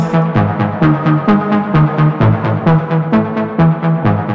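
A pop song plays loudly with a steady, punchy electronic beat and dense synth layers pulsing in a regular rhythm, with no singing or talking in this short stretch.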